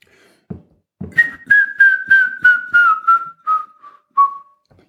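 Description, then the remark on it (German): A person whistles an imitation of a grey-headed woodpecker call: a series of about nine clear notes that slowly fall in pitch and slow down, fading toward the end. “Das ist dieses Absterbende, ähm, das ist der Ruf des Grauspechtes, äh, der sich von dem Ruf des Grünspechtes insofern unterscheidet, als er so vom Lachen ins Weinen ab, äh, abschwächt, abstirbt.”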